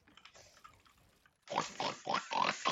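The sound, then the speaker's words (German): A quick run of five or six loud pig grunts and oinks in a steady rhythm, close and harsh, following a second or so of quieter rustling noise. “Okay, Leute, Schwein spielt Fortnite.”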